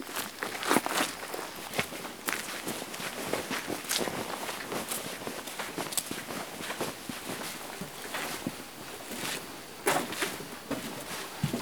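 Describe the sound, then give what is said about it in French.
Several people walk steadily in single file along a forest trail, their overlapping footsteps crunching and rustling in a continuous shuffling rhythm, with no talking. “On se déplace dans le sentier à la file indienne.”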